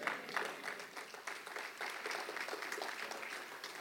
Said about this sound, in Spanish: Y los que no aplaudieron, bueno, ya sé su onda. ¿Verdad? Una flojera cristiana.